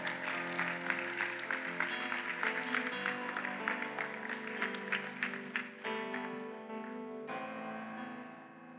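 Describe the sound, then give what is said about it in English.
An audience claps hands steadily in praise to the Lord over sustained keyboard music, the applause dense. Around six seconds the clapping fades out, leaving the held musical chords ringing on alone. “Why don't you give the Lord a hand clap of praise today?”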